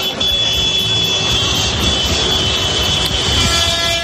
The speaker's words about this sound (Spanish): El sonido de los tractores hace días que se ha convertido en la banda sonora de esta movilización que amenaza con ir a más en las próximas horas.